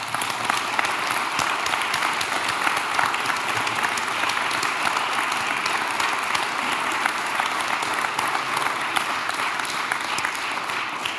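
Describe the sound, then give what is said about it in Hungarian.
Sustained applause from a sizable audience for both candidates after a pre-election debate, a dense steady patter of many hands clapping at even loudness throughout, with no talking over it. “Egy nagy tapsot szeretnék kérni a nézőközönségtől mindkét jelölt számára.”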